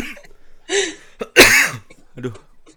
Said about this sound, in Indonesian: Gila gila, gue sampai batuk tuh.